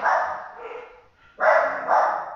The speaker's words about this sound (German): Wir hören jetzt einfach alle voll gerne meinen Hunden beim Bellen zu.